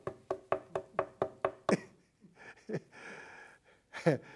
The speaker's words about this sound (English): But he says, uh, you, you, this guy goes to his friend's house at midnight and he knocks on the door.